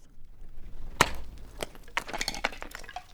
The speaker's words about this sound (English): We leave you this week with a bit of snap, crackle, and pop. The Canada Glacier is a small ice mass in Antarctica's Taylor Valley. As the weather warms, the glacier melts and produces streams that feed lakes to the east and west.